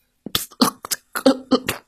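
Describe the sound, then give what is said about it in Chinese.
A voice imitating light coughing, standing for a tired, overheated television set: a series of six or seven short, soft cough bursts in an uneven rhythm, some with a slightly voiced, throaty tone, with no other talking. “电视机已经觉得自己非常非常非常累了，他浑身发热，不停的颤抖，还轻轻的咳嗽，”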